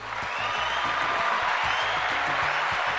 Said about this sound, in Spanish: Mira que aplauso, así que sí.